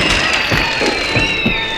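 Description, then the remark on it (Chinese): Steady, dense clapping from a group fills the whole stretch at an even loudness, a crackling wash of many hands with a few sharper claps and a faint sustained tone underneath, applause encouraging two children who won the Sea Hare prize for answering two questions. No one speaks. “哇，今天呢，两位小朋友呢，总共答对了我们的两题，所以呢，得到了我们的海兔奖，掌声鼓励。”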